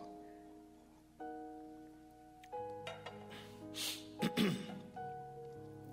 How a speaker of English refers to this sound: Excuse me to take a sip of water.